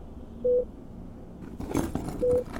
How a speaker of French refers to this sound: Il s'agit en fait d'un bonnet glacé que l'on pose sur la tête pour freiner la chute des cheveux. J'accepte avec joie. Allez, c'est parti. Bip, bip, bip fait la machine.